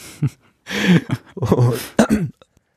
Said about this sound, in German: Jetzt fange ich auch das Husten an.